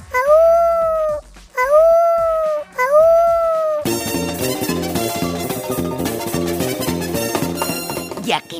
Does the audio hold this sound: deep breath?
no